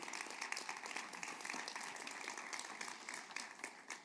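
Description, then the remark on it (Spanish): An audience applauds steadily to honour God, a dense wash of many overlapping claps holding an even level for about four seconds, with no voices over it. “Dale el aplauso fuerte si quieres honrarlo.”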